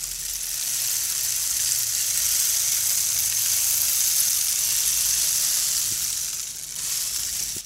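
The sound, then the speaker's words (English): A rain stick pours out a steady, soft, bright rush of tiny pattering grains, like light rainfall, sustained for several seconds with no voices, fading briefly near the end before resuming. “So I would generally start with bringing in the soft sound of the rain stick.”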